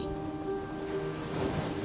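A steady, continuous wash of sea surf rolls on without distinct breaks, with a low, even hum running faintly underneath. No one speaks.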